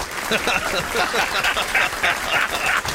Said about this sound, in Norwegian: Vi klapper for det. Ja. Faksdal, gratulerer med dagen.